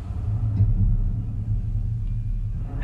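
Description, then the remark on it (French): A steady, deep rumble of sea surf rolls on continuously, low and heavy with a slight swell in intensity, with no voices or other distinct sounds, heard from a terrace facing the dark sea in a fine rain under a sky drained of light. “La mer est encore noire sous le ciel décoloré de lumière. Vous entendez son bruit.”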